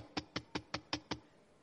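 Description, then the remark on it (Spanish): Six quick, evenly spaced knocks on the wooden door of a house in Brisbane, south of San Francisco, sharp, rapping in a steady rhythm before falling silent. No voices, just a faint background hush. “Fui a la primera casa y toqué la puerta.”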